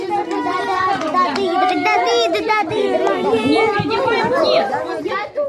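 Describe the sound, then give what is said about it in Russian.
Many children's voices chatter and call out at once in a lively, overlapping babble, steady and echoing slightly, in the corridors of a library for the blind in Voronezh, Russia, where visiting children gather during a nationwide arts night event. “В коридорах слышны детские голоса, мелькают яркие народные костюмы.”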